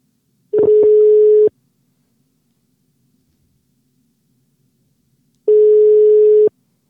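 A telephone ringing tone on an outgoing call: two steady, mid-pitched one-second beeps separated by about four seconds of silence. No one speaks.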